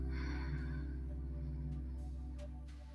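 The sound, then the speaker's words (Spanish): A soft, slow breath out drifts over a low, steady ambient drone, the airy hiss fading away within about a second while the drone continues quietly. “Solamente dedícate a concentrarte en cómo ingresa el aire a tu cuerpo, cómo suena el aire al entrar por tu nariz parecido a las olas del mar, en una inhalación y en una exhalación.”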